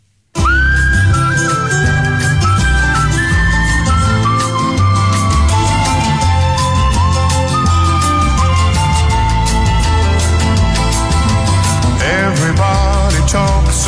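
A song opens with a whistled melody, a clear, sustained high line of gliding notes carried over a full, steady band accompaniment with bass and percussion, with no voices singing yet.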